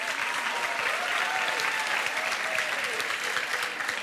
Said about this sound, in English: It's a packed house. Give yourself a round of applause.